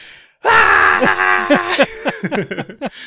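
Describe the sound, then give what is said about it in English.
A person lets out a loud, drawn-out scream that holds for over a second, then breaks into a run of shorter, choppy wailing bursts. “just prolonged screams.”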